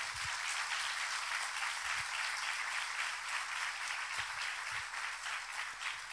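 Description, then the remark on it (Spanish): A crowd applauds loudly, a dense, steady wash of many hands clapping that holds at full strength for about six seconds without pause or talking. “Si lo vas a aplaudir, hacelo con fuerza.”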